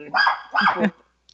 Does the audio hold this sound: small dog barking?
yes